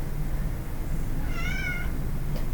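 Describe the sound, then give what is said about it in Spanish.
A pet cat putting its paw in its drinking water lets out one short, mid-pitched meow that rises and falls, heard over a steady low rumbling background noise; nobody speaks. “No juegues con el agua, mi vida. No juegues con el agua. No, metas la pata en el agua.”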